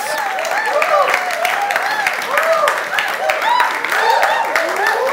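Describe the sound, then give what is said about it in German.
Steady, dense applause from a crowd, loud, with many overlapping claps and cheering voices rising and falling over the top for the whole stretch. “Mal, mal, sehen, mal sehen, ob ihr noch klatscht, wenn ich mit euch fertig bin.”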